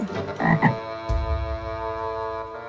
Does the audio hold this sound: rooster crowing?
no